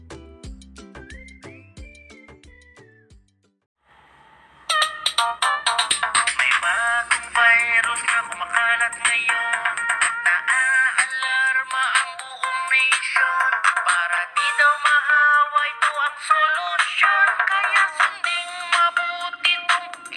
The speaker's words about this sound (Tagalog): Pakinggan ninyo ang isang jingle tungkol sa COVID. Pwede rin ninyong sabayan kung gusto ninyo.